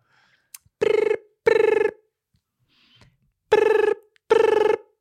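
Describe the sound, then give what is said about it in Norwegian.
A telephone ring tone sounds in two pairs of short, buzzy bursts separated by a pause, clear and steady with no one talking, like a call to the police ringing through on the line. “Ok, nå ringer vi.”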